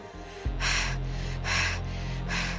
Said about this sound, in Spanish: Respira.